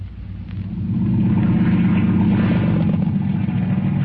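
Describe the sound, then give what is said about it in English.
A boat engine runs steadily as the boat nears a lobster float, a loud, low throbbing rumble that swells up at the start and then holds constant throughout, with no voices. “I shut off the engine.”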